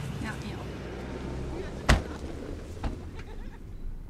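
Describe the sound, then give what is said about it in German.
A car pulls up and idles with a steady low rumble, broken by one sharp door-like slam about halfway through and a softer knock shortly after, as it arrives to pick people up for a test. “Jetzt fährt ein Auto vor.”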